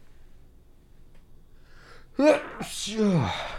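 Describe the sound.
A single sharp sneeze bursts out after a quiet stretch, with a quick intake of breath and a bright, noisy explosive release followed by a voiced trailing exhale.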